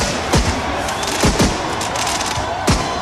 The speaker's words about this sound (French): Des feux d'artifice, des fumigènes ou encore des, euh, klaxons. Ça, c'était euh, l'ambiance sur les Champs-Élysées à, Paris cette nuit.